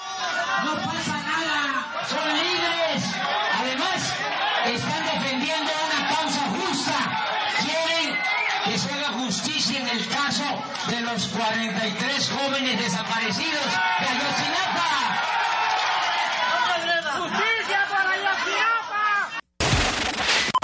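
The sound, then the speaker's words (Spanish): Protesters shouting over a speech by Andrés Manuel López Obrador at an informational assembly for Mexican migrants in New York, United States: a loud, continuous tangle of many raised, overlapping voices, with no words standing out, that cuts off abruptly just before the end. “Su discurso fue interrumpido por manifestantes.”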